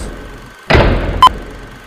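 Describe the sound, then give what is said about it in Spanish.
A heavy door slams with a loud, booming thud, then a second sharp bang follows about half a second later while the first still rings out. No one speaks. “Una puerta se cierra violentamente y otra puerta y otra y otra sobre una doble exposición de las mujeres que suben y bajan los brazos.”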